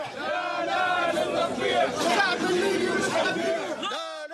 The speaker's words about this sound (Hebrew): מה שקרה לאחר מכן זה שההפגנות המשיכו אל תוך הלילה.